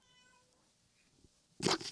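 A faint, drawn-out mew at the start, then a short, loud meow bursts out near the end after a quiet pause.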